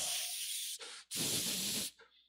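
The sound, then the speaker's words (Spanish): A voice imitates spraying Raid aerosol insecticide against mosquitoes in each bedroom, with hissing bursts: a long hiss, a short break, a brief puff, then a longer loud hiss that cuts off abruptly, with no talking. “Yo me voy para un lugar donde hay mosquitos y me llevo una caja de Raid más unos tres eléctricos y en cada alcoba pongo Raid y parezco un abuelo a las 4 de la tarde por toda la casa.”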